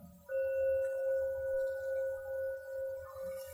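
A single gong strike gives a sudden onset, then a steady, mid-pitched ringing tone with a higher overtone that hums on for about three seconds before fading out.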